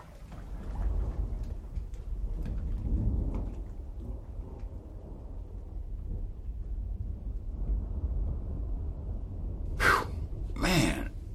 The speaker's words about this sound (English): air is hot. And humid. Ah, there's a storm coming.